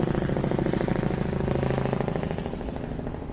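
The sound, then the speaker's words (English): A helicopter circles overhead, its rapid, steady rotor chop thudding loudly, a dense rhythmic pulsing with a deep engine drone that eases off slightly at the end. No one speaks. “what the fuck is that helicopter doing? It's circling the place.”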